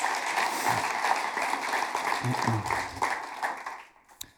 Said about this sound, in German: Gebt doch ihr einen herzlichen Applaus.